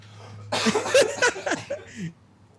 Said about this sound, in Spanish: Ni me puedo reír sin toser.